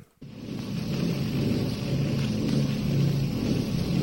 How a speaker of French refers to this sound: Et la pluie s'est mise à tomber.